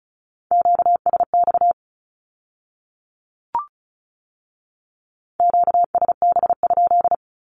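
A single steady tone keyed rapidly in Morse code at 35 words per minute, sending Q-codes in two quick groups of dots and dashes separated by a few seconds of silence and a brief click.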